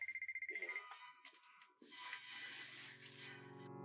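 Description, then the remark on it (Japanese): A phone ringtone for an incoming call trills in a rapid run of bright electronic beeps for under a second, then gives way to rustling and a low, steady rumble. “はい、というわけでね、なんかね、またちょっと、えー電話が来てしまってね、どこまでこう話したかちょっと忘れてしまいましたけど”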